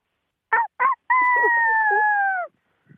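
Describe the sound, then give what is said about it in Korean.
A person imitates a rooster's crow: two short clipped syllables followed by a long, sustained, tonal call, loud, with no other talking. “저, 저기 닭 다시 한번 볼까, 닭?”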